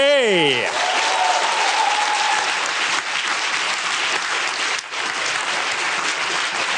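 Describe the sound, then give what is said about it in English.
A large audience claps loudly and steadily for several seconds to welcome a speaker at an event, a dense, sustained wash of applause that opens with a brief descending musical tone. “I want you to please be very, very upstanding for the beautiful and the incredibly smart Carrie Green, everybody.”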